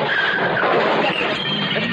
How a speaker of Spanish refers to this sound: Por su parte, su padre continúa circulando por la calle. Se dispone a girar cuando de pronto un coche que viene de frente colisiona con él.